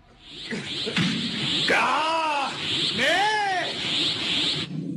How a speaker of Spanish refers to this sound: Pero bueno, para empezar estos enfrentamientos, ¿Qué les parece? Que nos emocionamos juntos con los gritos de batalla de nuestros primeros guerreros. ¡Ay! Aquí van.